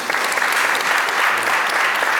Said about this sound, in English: So, you guys need to give yourselves a round of applause for that because that's all you.